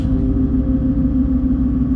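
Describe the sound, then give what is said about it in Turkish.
A car engine drones steadily at about 2800 rpm while climbing a hill past red and orange rocks and pine trees, a loud, continuous low rumble with a strong hum that holds constant throughout, with no voices. “arabam yani dakikada 2800 devir yapıyor. Yokuşu çıkarken bas bas bağırıyor.”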